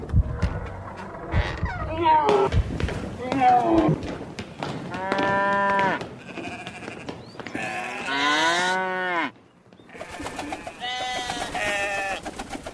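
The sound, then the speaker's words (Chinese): Sheep and cattle bleat and moo in overlapping, wavering calls, some long and drawn out, over a busy background of shuffling and chatter-like noise, with livestock voices rising and falling throughout. “法老下令了，法老终于发话了，叫所有以色列人马上离开埃及，带着他们的家眷、牛羊，全部都带走。”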